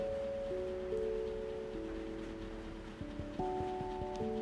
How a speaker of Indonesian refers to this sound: Kedengaran lagi hujan ya? Iya benar. Sekarang di tempat aku lagi hujan. Emang lagi musim hujan kali ya?